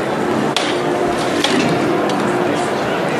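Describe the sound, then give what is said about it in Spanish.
A capataz's hammer knocks sharply on the wooden float of the Soledad de San Buenaventura during a procession, two distinct raps about a second apart, signalling the float to be lifted, heard over a steady murmur of crowd noise and faint voices. “Sí, sonando el martillo,”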